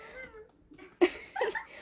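A video game cat meows a few times in quick succession, a short sharp cry followed by a longer wavering mew, clear with no talking.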